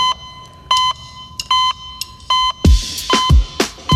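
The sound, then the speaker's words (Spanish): A hospital heart monitor beeps, high and electronic, tapping out a syncopated reggaeton rhythm; after a few bars, punchy thumping drum hits join in under the beeps. No one speaks. “El, sí, el monitor cardíaco con ritmo reggaetón.”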